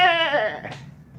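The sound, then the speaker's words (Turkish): A ram, not a lamb, lets out one loud bleat during a bayram holiday, wavering and quavering as it falls in pitch, then trails off into quiet background noise. “Kuzu değil, koç o koç.”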